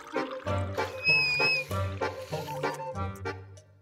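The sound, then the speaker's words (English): Rhythmic gurgling gulps from a nearly empty bottle, with a brief thin high whistle rising over the sloshing liquid partway through. “Uh, yeah, I'm low here, so you might get Whistle Jones a little bit.”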